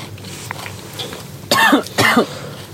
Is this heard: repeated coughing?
yes